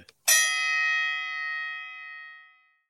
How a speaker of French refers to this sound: Lance le gong.